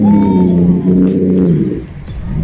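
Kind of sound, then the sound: bird, small bird calling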